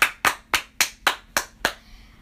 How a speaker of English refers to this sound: So let's give him a round of applause, folks.